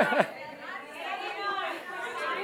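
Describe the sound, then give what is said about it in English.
Many voices of an audience call out number guesses at once in an overlapping jumble, a crowd shouting percentage guesses over each other at a steady, moderate level for the whole moment. “it's getting out of control. You know, I'm hearing all these numbers.”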